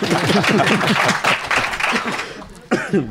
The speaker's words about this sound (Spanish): Mujeres, aplaudimos un poco.